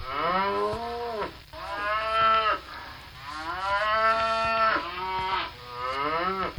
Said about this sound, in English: That's an easy one. I think you know that that's a cow or cattle, and they are the most common large domesticated ungulate.